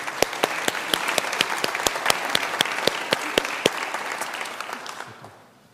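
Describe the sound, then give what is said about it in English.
A round of applause from a church audience during worship, steady overlapping clapping with sharp individual claps standing out, holding for about five seconds before thinning and fading away. “Let us give another round of applause for them.”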